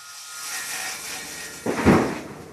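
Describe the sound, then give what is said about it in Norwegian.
A saw cuts through large boards, a steady rasping hiss that swells into a louder, harsher burst of cutting near the end, with no voices. “Store plater blir lagt på saga.”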